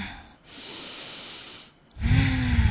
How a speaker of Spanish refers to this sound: Miren, tomen una respiración profunda y exhalen todo este oxígeno mientras van calmando ese vehículo.